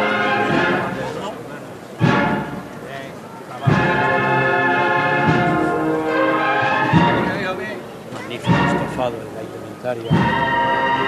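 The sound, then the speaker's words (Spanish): A processional band of Nazarene cornets plays a slow march, loud, with bright sustained brass phrases swelling in repeated surges and a ringing, bell-like edge over the full ensemble, as a procession float turns in front of the viewing stand. “Y ahí la potencia de esas cornetas nazarenas.”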